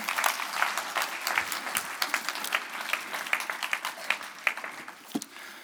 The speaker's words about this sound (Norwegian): Takk skal dere ha. De må få en applaus til når de går ut av tidsmaskinen.